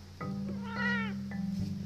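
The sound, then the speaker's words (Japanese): A pet cat named Tom, who had been grooming itself, lets out a single drawn-out meow, fairly loud, rising then trailing off over a low steady hum, with no talking. “あちょっと喋ってくれましたねトムさん今ちょうどね毛づくろいしてたんですけど自分が急に声かけたもんやから急に毛づくろいをやめましたね”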